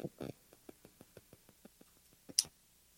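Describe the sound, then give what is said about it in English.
A faint, steady series of small ticks repeats about every fifth of a second, like a microphone clicking in the background, ending in a slightly louder, sharper click. “I'm not sure if that's your microphone or my microphone, but I hear it ticking in the background.”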